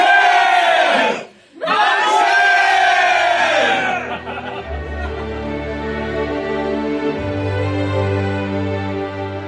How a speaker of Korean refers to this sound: 만세, 만세. 기쁨을 다해 외치는 우리말 만세 소리를 들으며